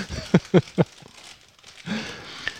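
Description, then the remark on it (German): A puffed-up snack bag from the Philippines crinkles: three quick crackling bursts, a short pause, then a longer rustling handling of the plastic. “Hier habe ich, glaube ich, nochmal was aus den Philippinen so aufgepumpt, wie die Tüte ist.”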